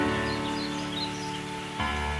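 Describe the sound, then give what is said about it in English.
Steady, heavy rainfall from a storm hisses without a break, with a dull low rumble beneath it and a few faint high shorebird chirps flickering above the downpour. “Do you notice that there is a bright, joyful innocence to their song despite the weight of the storm?”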